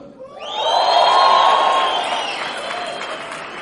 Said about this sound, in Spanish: Ahora, señor invitado, para ya terminar la junta, este espacio, ustedes dirán, ellos están entrenados para aplaudir. ¿Ustedes qué creen? que es verdad, están entrenados.